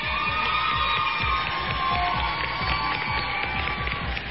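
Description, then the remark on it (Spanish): A crowd applauds and cheers steadily, dense clapping filling the whole stretch with bright shouts mixed in, loud and unbroken from start to finish. “Entonces, un aplauso, un aplauso para ellas.”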